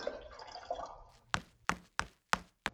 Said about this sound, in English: Say, this is hot. I'll pour it in my saucer to cool it.